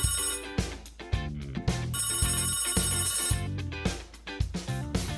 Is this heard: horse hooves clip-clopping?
no